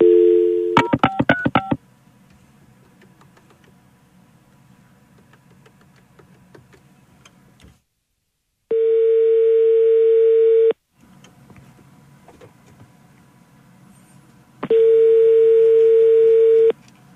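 A steady dial tone hums, then a quick burst of keypad beeps as a number is dialed, followed by long, even ringback tones separated by a low background hum. No one speaks. A radio show host is phoning a listener, an architect, to bring them on air.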